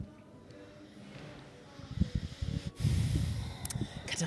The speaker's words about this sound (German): atmet schwer. Denkt nach.